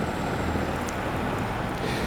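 A large orange truck drives past near a cemetery, its heavy engine making a steady, loud low rumble with a broad wash of noise that stays even throughout. No one speaks.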